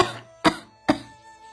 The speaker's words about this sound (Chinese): 黛玉说话气弱的很，没说几句话，已经咳嗽两三次了。